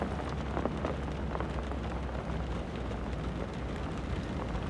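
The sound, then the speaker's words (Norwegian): Steady rain drums on a car roof, a dense, continuous patter with scattered sharper drops standing out, holding an even loudness throughout with no voices. “Bare regnet som trommer på taket.”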